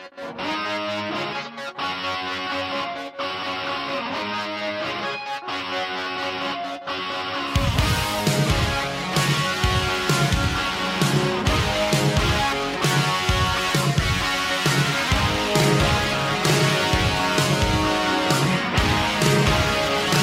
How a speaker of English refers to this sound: Let's hear what else this song has in store for us.